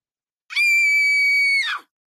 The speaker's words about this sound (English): Uh oh what was that scream? What was that?